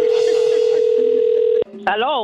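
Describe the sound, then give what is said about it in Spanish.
A steady, continuous telephone dial tone drones loudly for about a second and a half after a call is hung up, then cuts off abruptly, and a man's voice begins speaking moments later. “¿Usted por qué usted me tiró el teléfono?”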